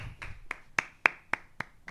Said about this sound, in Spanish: Pero lo logramos. Un aplauso. Un aplauso